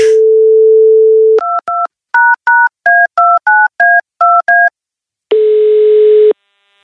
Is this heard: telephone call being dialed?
yes